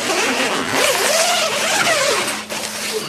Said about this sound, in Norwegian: Altså, nå åpna han et telt hvor det henger i to etasjer. Og alle plantene står liksom fint i Liksom systematisk plassert opp.